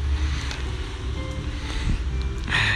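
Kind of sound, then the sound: nature, light rain falling outdoors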